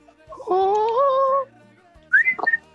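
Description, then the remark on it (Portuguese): Someone whistles an imitation of birds singing, like in the scene of Fiona waking up: a long, steady note that rises slightly, a short pause, then a few quick, higher chirping trills. “Que dá os pássaros e tal”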